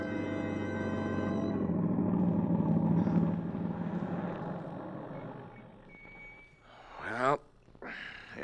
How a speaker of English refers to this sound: Tom Stevens and Helen Benson drive up to the boarding house after their picnic